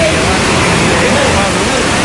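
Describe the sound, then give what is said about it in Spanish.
Loud, steady roar of floodwater rushing down a flooded street in Villalba, a continuous wash of churning water with no pauses. “no, pero ya es un río.”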